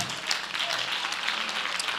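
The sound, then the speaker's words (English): An audience claps their hands for Jesus, a dense, steady wash of many overlapping claps that holds at an even, fairly loud level for about two seconds. “Clap those hands for Jesus if you can.”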